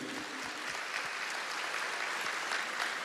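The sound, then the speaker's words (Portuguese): A church audience applauding the Lord: dense, steady clapping from many hands fills the whole clip at an even, fairly loud level, with no voices standing out. “Então eu, glória a Deus, aplaudam o Senhor, Ele é digno.”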